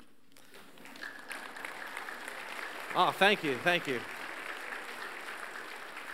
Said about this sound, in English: Your spontaneous applause is, is, a, is a thankful gesture.